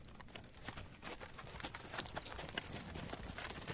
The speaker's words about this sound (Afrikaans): Dis die wit perd van Kalfini. Hy loop maar hy kan nie sien nie.